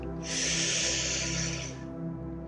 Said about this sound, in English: Okay, I really want to take this time to just. Just to breathe. Breathing in.